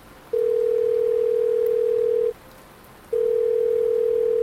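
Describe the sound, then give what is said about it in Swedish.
A steady electronic ringback tone from a mobile phone call that goes unanswered sounds twice, each long beep lasting about two seconds with a short silent gap between, clear over faint background hiss. “Kom igen Jordi, svara. Svara.”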